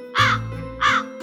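Two harsh, raspy jackdaw calls, evenly spaced about half a second apart, each a short hoarse caw ringing out loudly over a steady low hum.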